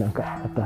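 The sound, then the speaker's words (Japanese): A dog barks a few times somewhere off in the distance, its short yelps faint and partly buried beneath a person talking close by. “ちょっと遠くの方で犬が鳴いてますね、吠えてますね。”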